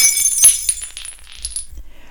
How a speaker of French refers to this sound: Deux coups de patte et l'une d'entre elles était tout près du bord. Encore un petit coup, et le bocal s'écrasa au sol.